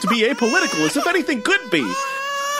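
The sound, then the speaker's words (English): A loud wailing, warbling cry like a baby's sound effect, with rising and falling pitch that ends in a long sustained wail, while a person talks over it. “I've triggered the alarm. It's the sound of the crybabies who are going to get upset with me”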